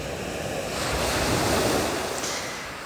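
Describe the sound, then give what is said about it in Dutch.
Sea waves in Greece wash onto a pebble beach, a broad rushing surge that swells and then recedes with a faint hiss of wind, steady, with no voices. “De zee in Griekenland. En de golven die breken op het strand wat vol kiezels ligt.”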